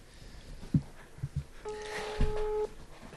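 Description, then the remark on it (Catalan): A single steady telephone ringback tone, as a radio station places a live on-air call, sounds for about a second, clear and moderately loud, after a few soft thumps and handling noises, with no talking over it. “Mira, et trucava de... Estem en directe des de la ràdio.”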